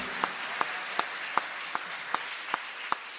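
A church audience at a Sunday baptism service applauds to welcome a woman, in a steady, dense wash of clapping, with a few sharper claps landing in an even rhythm about every third of a second. No one speaks.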